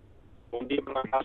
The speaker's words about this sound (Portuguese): A ligação por telemóvel está muito, muito mal